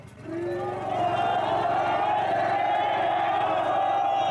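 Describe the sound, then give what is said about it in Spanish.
A large crowd of teacher-training students with covered faces shouts slogans together in unison in front of the main entrance of a military zone, a loud, sustained mass of voices that holds steady for the whole stretch. “mientras los normalistas que los acompañaban se formaron frente al acceso principal de la zona militar con el rostro cubierto gritando consignas.”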